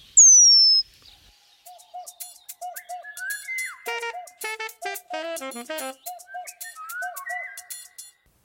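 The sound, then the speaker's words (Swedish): A Eurasian penduline tit call: one thin, high, drawn-out whistle sliding downward, loud and clear, followed by a busy, varied chatter of other birds chirping and trilling. “Men det här är ju ti Pungmesens läte.”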